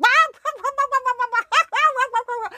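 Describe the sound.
A voice imitates hens cackling loudly at a joke, a rapid run of high, choppy clucks in quick succession with a brief pause midway, animated.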